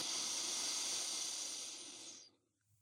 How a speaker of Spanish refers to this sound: Entonces, vamos a hacer una relajación corta. Van a inhalar por la nariz. Y exhalen por la boca como si tuvieran que empañar un vidrio. Inhalo por la nariz.